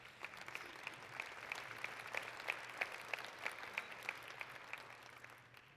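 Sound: audience clapping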